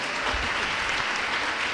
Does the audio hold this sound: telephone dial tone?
no